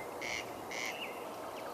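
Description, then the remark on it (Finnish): A corncrake calls twice on a cool May evening (14 May), each note a dry, harsh rasp about a fifth of a second long, spaced evenly over a steady hiss of background noise. No one speaks. “Että heippa vaan ruisrääkät”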